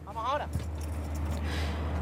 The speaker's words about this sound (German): Wir lassen noch einen weiteren Bus vorbeifahren und dann das Getümmel hinter uns.